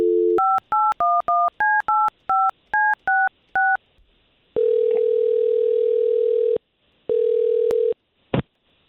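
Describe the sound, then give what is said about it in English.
A short telephone dial tone, then a quick run of about a dozen keypad beeps in an even rhythm, followed by two long ringback tones and a click, all clear with no talking. “Why don't we call her and let's find out if we can get to the bottom of this?”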